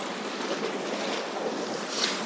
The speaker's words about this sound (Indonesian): Habis pulang kerja, terus lu coba menikmati sunset di pantai rasanya benar-benar tenang banget